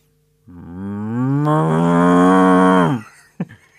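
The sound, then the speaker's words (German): A person imitates an East Frisian cow with a single long, loud moo, rising in pitch and holding steady for about two and a half seconds before cutting off, followed by a brief short sound. “Das ist eine ostfriesische Kuh.”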